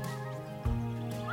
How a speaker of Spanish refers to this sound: Mira, ahí va. De hecho, hay pájaros.